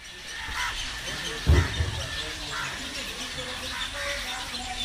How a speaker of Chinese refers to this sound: 在波卡拉的早晨，如果你起得比较早的话，在费瓦湖边走，能够听到很多像这样的鸟叫声。